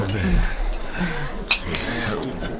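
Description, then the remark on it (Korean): A single bright clink of glasses striking together rings out midway, fairly sharp, as people toast while drinking alcohol together, amid the murmur of people talking around a table. “자, 자 건배하자고요.”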